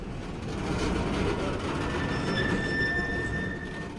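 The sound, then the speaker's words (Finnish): A freight train on the rail link through Russia and Kazakhstan to Kouvola, Finland, rolls steadily along the rails with a dense, continuous low rumble, while thin high-pitched wheel squeals rise in the second half. No one speaks. “Loppuvuodesta Suomikin liitettiin kuvioon – Tavarajunayhteys Venäjän ja Kasakstanin kautta Kouvolaan avautui marraskuussa.”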